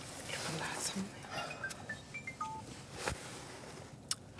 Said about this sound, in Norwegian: Oi, der ringer telefonen igjen.